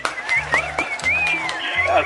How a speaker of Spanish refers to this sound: Eso, eso, aplausos por eso.